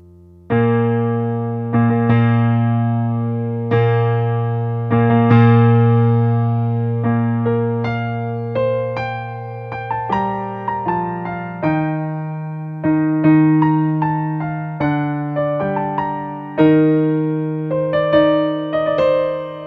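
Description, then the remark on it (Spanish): The park theme of an orchestral film score about a park full of dinosaurs plays on its own: a slow, stately melody moves in held notes over a sustained low bass line, steady and fairly loud, with no voices. “Este va a ser entonces el tema del parque.”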